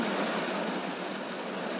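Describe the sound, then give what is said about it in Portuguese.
Heavy, torrential rain pours down in a dense, steady hiss with no letup, filling the whole short stretch evenly and fairly loud, with no voices. “Está a chover torrencialmente.”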